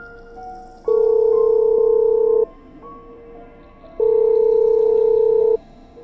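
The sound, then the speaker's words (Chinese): A phone call to a house rings unanswered on the line: two long, steady mid-pitched ringback tones, each about a second and a half, separated by a pause over a faint background hum. No one speaks. “我又打了个电话，里面没有人接。”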